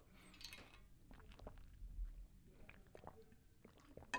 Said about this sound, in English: I'm going to take a sip of this water because my voice is a little parched or my throat is a little parched. So if you got water, let's chug it on three.